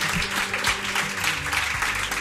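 Steady audience applause, a dense crackle of many hands clapping at once, sustained and fairly loud throughout with no voices standing out.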